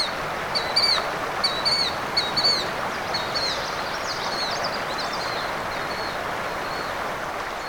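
A killdeer calls repeatedly, a series of shrill, high notes over the first several seconds, against a steady outdoor background hiss.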